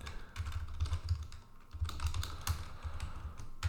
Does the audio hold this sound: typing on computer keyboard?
yes